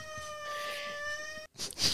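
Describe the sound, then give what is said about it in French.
A cat lets out one long, steady meow, clear and fairly loud, then after a brief pause a short breathy, scratchy burst of noise follows. “Mais ah, chat Il est pas sur nous, d'habitude.”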